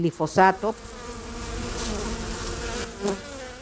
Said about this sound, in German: die Bienen von Imkerin Lady Peach aus dem Süden Mexikos